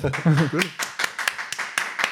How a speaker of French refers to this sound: Et merci pour les applaudissements.